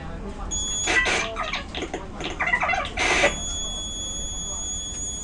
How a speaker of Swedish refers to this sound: Jag var med om en jävligt bra krasch på tunnelbanan här, här om veckan, där det här automatiska systemet som ropar upp vilken, eh, vilken station man är på väg till buggar ur. Eh, det lät så här.